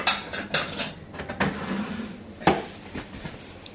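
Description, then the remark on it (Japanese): Clattering kitchen sounds: several sharp metallic clinks and taps of a utensil against a can and a plate, irregular and fairly loud, with no talking, as chilled canned food is transferred from the opened can into a shallow plate. “えー、かといって蓋を開けて、えー、お湯で温めるっていうのも面倒だとあ面倒だなって言っちゃいけません、ね、非常に失礼な感じでこれをちょっとこう深くないこのお皿に”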